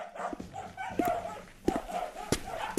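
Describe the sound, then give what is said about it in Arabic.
A dog barks several times in short, sharp bursts spaced about half a second apart, moderately loud over a low background hum, with occasional whiny yips between. “شنو ميسيو كلبك ياسر ينبح سوني با نورمال والله باش نقول عندك الحق لم كنت ليه والكلاب في الليل يكثروا من بيه وي مي ينبح مش نورمال برشا برشا”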